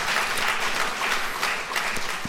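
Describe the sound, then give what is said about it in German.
Sustained audience applause at the Ostdeutsches Energieforum (East German Energy Forum) following a speech, a dense, steady wash of many hands clapping at an even, fairly loud level, with a few sharper individual claps standing out and no voices over it. “Dafür gibt es dann beim Ostdeutschen Energieforum viel Applaus.”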